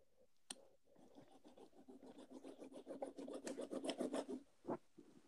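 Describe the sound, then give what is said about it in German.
A small toy car rolls back and forth on a hard surface, a rhythmic gritty rasping that builds louder over several seconds, then stops with a soft knock. Nobody speaks. “fahr den mal so hin und her.”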